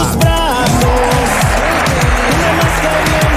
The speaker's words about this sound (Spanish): Mira la producción cómo te recibe con los aplausos, vamos.